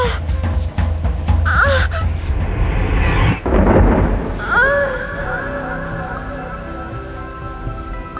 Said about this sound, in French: sous un orage terrible, comme la zone 51 n'en connaissait que rarement, détrempées par la pluie,